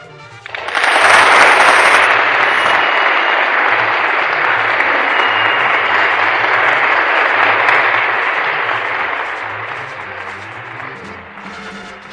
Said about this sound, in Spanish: Aplausos, por favor.